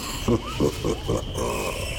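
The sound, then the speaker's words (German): Monkeys call overhead in a dense jungle, four quick, rhythmic grunting hoots over a steady hiss of jungle ambience that continues after the calls fade. “Du hörst es, es sturnen Affen über unseren Köpfen umeinander.”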